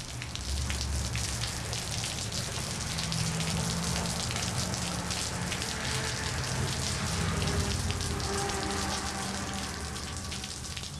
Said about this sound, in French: Il pleut, c'est tout ce qu'il sait faire.